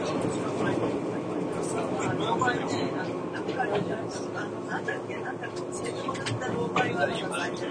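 A steady, continuous rumble fills the inside of a moving Izukyu 2100 series train (Kinme train) running from Atami to Ito as a limited express bound for Shimoda, with a constant mechanical drone, faint clicks and rattles, and soft indistinct murmuring of passengers in the background.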